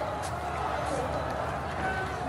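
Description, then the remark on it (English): Many voices of people in Kabul, Afghanistan, crying out against the Taliban at night, blend into a steady, echoing murmur carried across the city, continuous and fairly faint, with no single voice standing out. “But all around, I can just hear their voices echoing across the city.”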